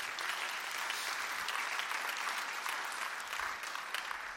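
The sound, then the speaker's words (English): A crowd claps in a subdued, half-hearted way, a steady soft patter of hands for a few seconds without building or swelling, with no voices over it. “All right, I'm closing because that was a half hearted clap.”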